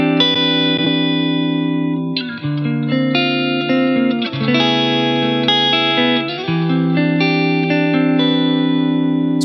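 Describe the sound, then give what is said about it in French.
Electric guitar played through a Mojo Diamond overdrive pedal, sustained gritty chords with rich harmonics ringing out, changing every couple of seconds, loud and steady with no talking. “On écoute la Mojo Diamond”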